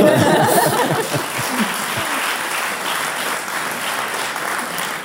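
An audience claps steadily, a dense wash of many hands sustained for the whole stretch, with a few brief bursts of laughter near the start.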